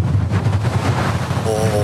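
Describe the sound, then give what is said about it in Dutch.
Storm wind roars and buffets steadily with a deep, rumbling low end and loud gusty hiss, and a thin whistling tone briefly rises over it near the end. “Even naar de wind luisteren nog”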